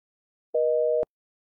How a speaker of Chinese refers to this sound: 最后还是石小念挂掉了电话。电话断线之后，傅明翰仍失神的举着手里的电话在耳边，听着电话里传来的嘟嘟声。